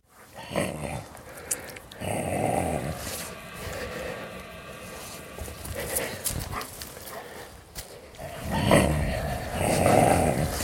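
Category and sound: animal, dogs growling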